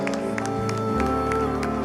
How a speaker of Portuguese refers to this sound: aplauso aos céus nessa hora.